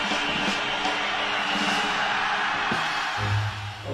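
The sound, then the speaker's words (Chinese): A crowd applauds steadily with scattered whoops and shouts, welcoming the host at the start of the Daming Talk Show (大明脱口秀). A dense, continuous wash of clapping stays loud for a few seconds before easing slightly at the end. “先生们，Ladies and Gentlemen，现在是大明脱口秀时间，掌声欢迎我们亲爱的 s t a r m y”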